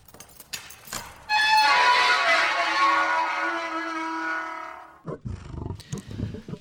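A lion lets out one long, loud roar lasting several seconds, deep and harmonic-rich, rising sharply and fading at the end, followed by a few softer rumbling grunts.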